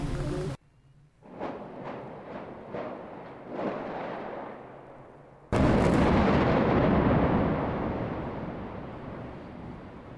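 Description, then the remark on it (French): A quick series of sharp cracks pops off in succession, then a scheduled explosion, delayed past 11:00, erupts into a loud, sustained roar of rumbling debris that slowly fades, with no voices. “Décalage de l'explosion qui n'aura pas lieu à 11h mais 11h03.”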